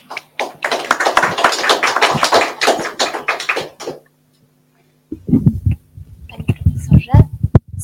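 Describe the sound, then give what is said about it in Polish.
A crowd applauds for about four seconds, a dense patter of clapping that stops abruptly; after a short silence a person begins speaking. “Brawa.”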